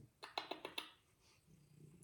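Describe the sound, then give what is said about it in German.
A cat purring, a quick run of soft rhythmic pulses that settles after a second into a quieter, low steady rumble. No one speaks. “Ja, der Schnurren war eine Mieze.”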